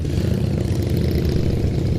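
Harley motorcycles from Kassel arrive, their heavy engines rumbling and chugging steadily, a loud, deep, continuous throb with no voices over it.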